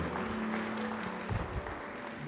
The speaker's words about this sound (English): Well, if you needed this today, can we give the Lord a hand of praise and just thank Him?